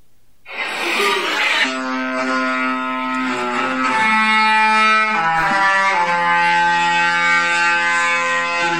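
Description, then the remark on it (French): A cruise ship's funnel horn blares loudly for several seconds after a brief rushing burst, its rich, brassy tone shifting pitch in a few steps like a short melody. No one speaks. “Alors, est-ce que l'un de vous deux peut nous décrire ce qu'on vient d'entendre alors c'est le c'est le son du le son de la cheminée du bateau.”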